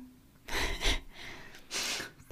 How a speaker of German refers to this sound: Boah, ich muss niesen.